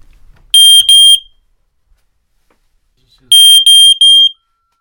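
A smoke detector screwed to the ceiling sounds its test alarm as the test button is pressed, loud and piercing, with a quick pair of shrill beeps, a pause, then a burst of three more, with no talking.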